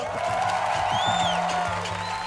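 A studio audience cheers and applauds steadily, a dense roar of clapping and shouting with a few high whoops or whistles rising above it, loud and sustained throughout.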